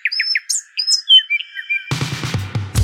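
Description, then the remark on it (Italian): A canary chirps and trills in quick, bright, high-pitched bursts for about two seconds, clear, before a louder, fuller burst of sound abruptly takes over. “Un canarino? Uccellino?”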